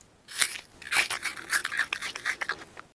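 A crisp, crunchy bite into an apple, followed by several wet, crackling chewing crunches in an uneven rhythm, bright and fairly loud, with no voices.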